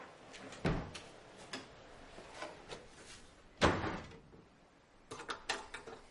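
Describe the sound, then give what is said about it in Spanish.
A door is opened with a dull thump by a woman carrying a rubbish bag, who takes a key and leaves, and it later shuts with a sharper bang, followed by a quick run of small latch-like clicks; no one speaks, and only faint rustling fills the gaps. “La abre, coge una llave y se va.”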